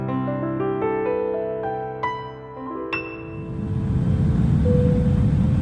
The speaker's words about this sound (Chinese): 我们的飞机在一万米的高空上飞行